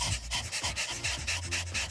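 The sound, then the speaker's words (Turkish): A person imitates a dog's panting as a breathing exercise, quick, rhythmic huffs of breath, about four per second, steady, with no talking. “İkinci egzersiz köpek nefesi. Böyle ah, çok koşmuş”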